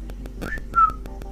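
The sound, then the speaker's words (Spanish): Someone imitates whistling with their mouth: a short rising whistle followed by a longer, steady tone, clear over a faint, regular ticking in the background. “Empiezan a silbar en mi oreja.”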